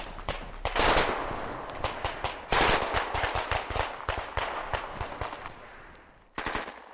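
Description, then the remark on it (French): Rapid bursts of gunfire during a French army military exercise in Estonia crackle from several directions. Dense volleys and scattered single shots overlap, some loud and others quieter, then a brief lull comes before another sharp burst. “Rapidement, les coups retentissent de toutes parts.”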